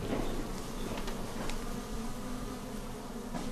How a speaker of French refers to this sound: Sous le couvert des arbres, des douzaines de ruches en bois bourdonnent pleines d'abeilles, dont il s'apprête à récolter le miel.